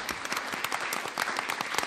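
A crowd applauds steadily for directors Armando Casas and Benito Taibo, many hands clapping in a dense, continuous patter with irregular sharp claps standing out, fairly loud throughout with no voices.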